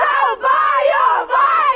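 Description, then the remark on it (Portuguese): A crowd at the Festival do Sudoeste cheers and chants in loud, rising waves as the performer behind the mixing desk asks them to repeat his name: three swelling bursts of massed voices with brief dips between them, no single speaker standing out. “arrancou o espetáculo por trás da mesa de mistura, animou a multidão enquanto lhe pedia para repetir o seu nome.”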